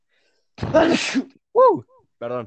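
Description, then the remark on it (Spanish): A single loud sneeze bursts out, followed by a brief laugh and a person saying a quick word. “Salud.”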